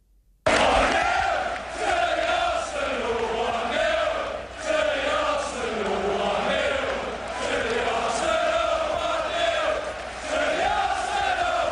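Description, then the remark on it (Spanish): A large crowd of Arsenal fans at the Emirates stadium sings the chant 'One Nil to the Arsenal' in unison, loud and continuous with rhythmic swells, many voices blending into a dense roar. “Este tampoco es el himno, pero es lo que más suena allí en el Emirates de lo que más suena el One Nil to the Arsenal, también con otra otra variante que es el Stand Up for the Arsenal, o sea, ah.”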